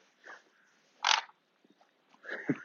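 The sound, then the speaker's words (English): A female dog growls at another dog in three short, rough bursts: a brief low snarl, a louder harsher one in the middle, then a longer rumbling growl at the end, with no talking. “What's the problem with that dog?”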